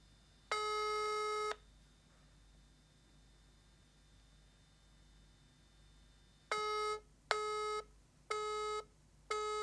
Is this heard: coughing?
no